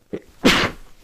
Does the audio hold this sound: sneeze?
yes